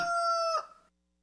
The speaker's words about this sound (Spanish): Una mañana muy temprano, los padres de Nilu se despertaron asustados al oír un gallo cantar. Corrieron a la habitación de Nilu y ahí estaba Gato, dando los buenos días con su kikiriki.